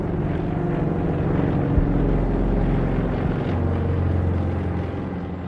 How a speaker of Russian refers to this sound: По сей день в некоторых странах пассажиров и грузы перевозят двухмоторный старичок «Дуглас». Удивительно надежный самолет, пригодный и для Арктики, и для Африки.